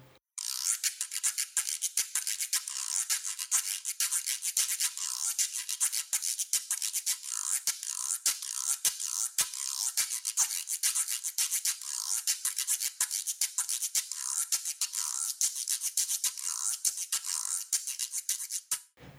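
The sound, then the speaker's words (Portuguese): A reco-reco scraper, a samba percussion instrument, rasps steadily and quickly, its bright, grating strokes keeping a fast, even rhythm. It plays alone, fairly loud, with no voices. “Um belo exemplo dentro do samba é o reco-reco, este instrumento de percussão.”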